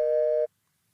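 A steady electronic busy tone, a loud sustained dual-pitched beep held for about half a second before cutting off abruptly into silence as a phone call drops out.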